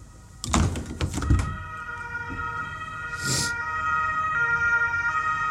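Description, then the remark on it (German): An emergency vehicle siren wails steadily outside in the Bronx at 9:44 a.m., the third time that morning, muffled, with a few knocks and a brief rustle indoors near the start. No one speaks. “Fahren wieder hier. Ist, wir haben jetzt 9.44 Uhr, ist das dritte Mal heute Morgen weil ich wohne ja in der verdammten Bronx hier.”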